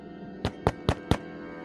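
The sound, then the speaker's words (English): Four firm knocks on the door of Shago's establishment, evenly spaced in a quick, steady rhythm, fairly loud. “Grok, you take a knock on the door.”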